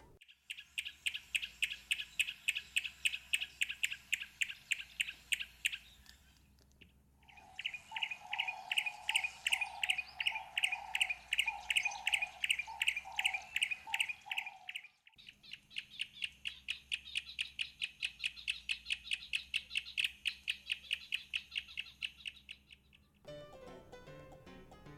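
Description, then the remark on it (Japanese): A yellow-breasted warbler in Uganda calls in three long bursts of rapid, dry clicks, like pebbles tapped together, each bout steady with short pauses between. No one speaks. “こう石をカチカチ鳴らしてるような前回ご紹介したタンビコ虫食いとよく似た鳴き方ですよね”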